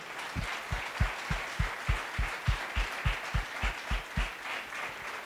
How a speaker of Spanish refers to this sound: Este aplauso es un aplauso de ofrendas para Jesucristo. Él es el dueño y el que tiene esa, esa honra.